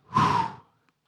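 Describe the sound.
A single forceful breath blown out, a broad airy whoosh lasting about half a second before cutting off into silence.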